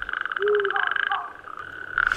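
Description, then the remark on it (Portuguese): A natterjack toad calls in February, giving a loud, sustained rattling trill, a rapid pulsing churr that carries steadily with brief breaks, heard alone against a quiet night background. “Em fevereiro, a raposa e o sapo corredor.”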